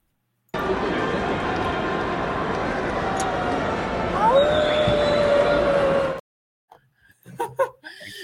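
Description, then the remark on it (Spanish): A person lets out one long, drawn-out howl like a dog, sliding slightly downward over a dense, roaring background, followed after a sudden cut by brief voices and laughter. “El, el, aullido”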